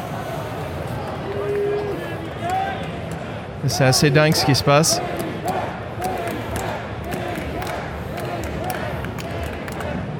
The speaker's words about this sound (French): il y a carrément un match de catch là. Je sais pas si vous entendez. Je vais essayer de me rapprocher un peu.